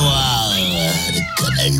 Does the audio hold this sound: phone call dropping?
no